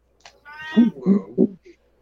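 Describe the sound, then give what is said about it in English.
Cats yowl and snarl as they fight, in a short, heated burst: a drawn-out wavering cry followed by two or three harsh, rising yowls, fairly loud, with no talking. “They're fighting like literal cats and dogs over there.”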